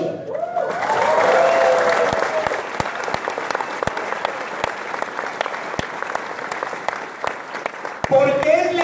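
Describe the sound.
A crowd breaks into sustained applause, a dense wash of clapping with sharp individual claps standing out, while a voice speaks briefly at the start and again as the clapping fades.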